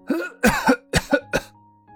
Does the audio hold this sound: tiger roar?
no